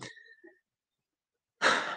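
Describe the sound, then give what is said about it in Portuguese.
A pet named Paçoca snoring loudly: a raspy, breathy snore trails off into a short silence, then a second, louder rough snore rushes in and holds. “é, o Paçoca tá aqui, tá, tá violento aqui, roncando.”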